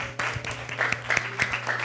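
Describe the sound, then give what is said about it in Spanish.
A church audience applauds for a couple of seconds for participants who did well, a steady patter of many hands clapping with sharper individual claps standing out, over a low constant hum. “Un aplauso.”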